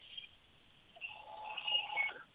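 A phone's incoming-call tone chirps faintly, swells a little louder for about a second, then cuts off abruptly with a small click as the call is declined. No one speaks.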